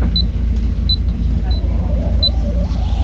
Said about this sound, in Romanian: Casă de marcat. Ah, casă de marcat. Auzi, mă, ne-a luat banii.